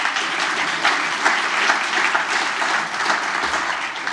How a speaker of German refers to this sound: Da dürfen Sie auch mal klatschen, denn ganz ehrlich, ohne die wäre das hier nicht zu stemmen.